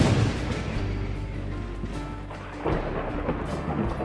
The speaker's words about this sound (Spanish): Beb Cororotti golpeó el aire con su bastón y resonó un terrible trueno.